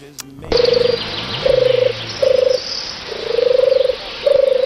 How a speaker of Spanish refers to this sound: La primera era una tórtola.